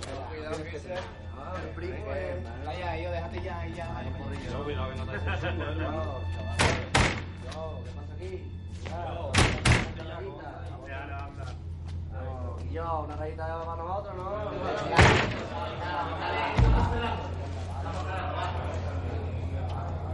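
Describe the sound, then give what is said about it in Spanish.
Doors slam and bang several times, in loose pairs of sharp thuds, as people come into a restroom, with murmuring voices and a low steady hum running underneath. “Se asusta al escuchar gente entrando al servicio y cierra el pestillo y escucha atento.”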